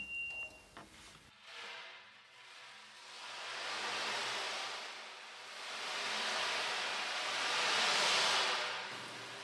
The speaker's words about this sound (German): Irgendwo im weiten Ozean schlagen die Wellen gegen eine kleine Insel.